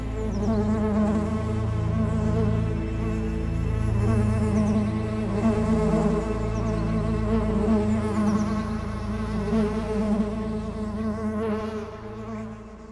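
A dense swarm of bees drones continuously inside a conch shell, a thick layered hum with shifting wingbeat tones that swells slightly but never stops, with no voices present.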